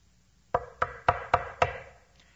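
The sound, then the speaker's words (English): Five firm knocks by a wolf on the door of a brick house, in a steady, evenly spaced rhythm, clear, with a short resonant ring after each rap and quiet before and after. “Soon the wolf knocked on the door.”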